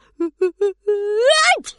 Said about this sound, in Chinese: 天啊！ 小黄狗打了一个大大的喷嚏，口水都飞到小白兔的脸上了。